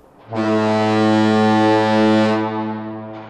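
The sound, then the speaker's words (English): A single loud foghorn blast, a deep, steady, harmonically rich tone that holds for nearly three seconds before tapering off slightly at the end, with no voices. “We can't volunteer to put a foghorn on our house.”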